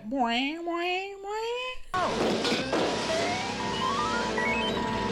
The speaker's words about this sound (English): is the sound, the same exact sound of Pac-Man dying in the Atari 2600 version of Pac-Man.